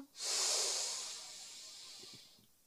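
A long, deep breath drawn in through the nose, a steady airy hiss that swells quickly and then slowly fades over about two seconds, alone with no talking.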